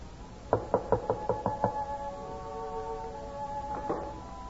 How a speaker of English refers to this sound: Who knocks at this hour?